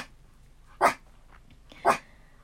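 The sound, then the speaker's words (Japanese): A pet dog barks twice, about a second apart, with short sharp barks standing out clearly and no one speaking; the dog apparently wants to be taken for a walk. “また犬が吠え出すっていうね”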